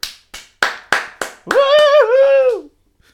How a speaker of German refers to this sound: Also ich möchte dir ähm, virtuell applaudieren. Ja, du kannst auch auditiv applaudieren.